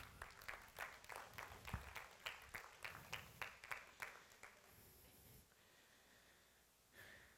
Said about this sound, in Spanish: Dale un fuerte aplauso al Señor por eso.